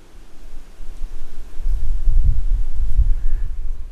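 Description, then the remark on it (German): Low, blustery wind rumbles through a cork oak forest, swelling after the first second and gusting in soft, thumping pulses, with a faint airy hiss above and no voices. “Hier mitten im Korkeichenwald mit dem Wind.”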